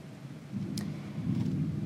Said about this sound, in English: And join me in listening to some of the thunder happening here. I'm not sure if it'll carry through to the background, but there's a big storm happening. And hopefully, keeping everyone safe but I do appreciate an August thunderstorm in Michigan.